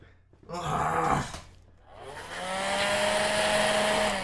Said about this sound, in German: Dann behaupten wir einfach, äh, dein Staubsauger klingt jetzt ein bisschen anders. Das, das glaubt man.